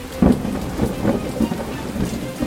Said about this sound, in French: La pluie se remet à tomber.